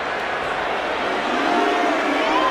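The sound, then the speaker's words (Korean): A baseball stadium crowd of home fans cheers in a dense, steady roar of many voices, loud and sustained throughout with no pauses, no single voice standing out, as batter Lee Han-su comes up in the bottom of the ninth with the bases loaded and no outs. “지금 홈팬들의 열렬한 환호 속에 등장하고 있습니다.”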